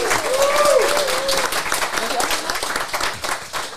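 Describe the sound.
An audience applauds newly introduced guests with steady, dense clapping that fills nearly four seconds, a brief sliding whistle cutting through early on and a murmur of voices underneath.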